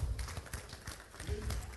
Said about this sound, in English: Clap your hands for God.